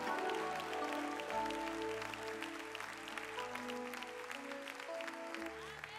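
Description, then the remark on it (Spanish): A church audience applauds the Lord with steady, dense clapping that holds for the whole stretch, layered over sustained keyboard or organ chords that shift slowly underneath. “Si lo creen, dale el mejor aplauso al Señor.”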